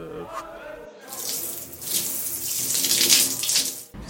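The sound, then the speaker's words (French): Shower water runs in a steady, hissing spray for about three seconds, fairly loud, then cuts off abruptly, in the team showers after a rugby match; a voice is briefly heard just before the water starts. “Comme euh, toute douche, euh, même quand on est chez soi, quand on prend une douche, souvent on assimile ça à de l'apaisement.”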